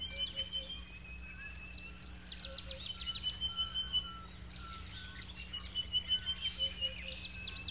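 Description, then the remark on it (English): Superb starling calls: bursts of bright chirps and rapid trills recur every few seconds over a steady low hum and faint insect buzz, with no one speaking. “So are small birds, such as the superb starling.”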